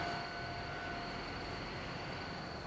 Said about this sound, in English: How many trains go by here? Are you kidding me? Oh, it's not even a real train. I see. It's just a uh, one of those little checking out the tracks trains.